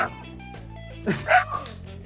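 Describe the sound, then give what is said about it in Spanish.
A couple of short, sharp barks from the dogs Perlita and Lelo come in quick succession over a low steady background hum, moderately loud, with no talking. “Bueno, los perritos ya se están despidiendo.”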